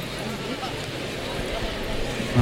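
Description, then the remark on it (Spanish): In a bullring, the hooves of Diego Ventura's horse Nómada clop at a steady, uneven pace as it comes out through the cuadrilla gate. The horse's mane carries the Spanish flag. The hooves sound over dense crowd noise and murmuring voices, partly buried in the surrounding din. “Sale por la puerta de cuadrillas con este caballo que lleva la bandera de España en las crines.”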